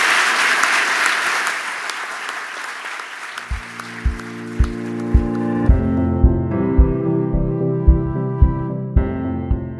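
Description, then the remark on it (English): Loud, dense applause from an audience for the moderator and panelists at the Albers Executive Speaker Series at Seattle University. It fades out over a few seconds as steady, rhythmic music with a regular thumping beat rises and takes over. “Let's give our moderator and our panelists another round of applause for being with us tonight”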